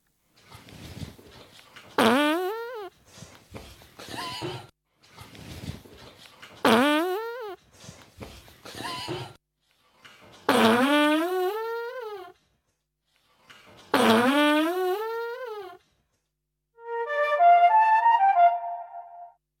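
A series of recorded farts set to music, sputtering bursts alternating with a flute that echoes each one's rising and falling pitch, ending in a cluster of quick plucked harp notes. No talking.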